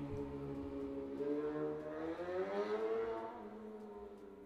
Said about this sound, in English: We in the downtown streets, people, so if you hear everything in the background, forgive me!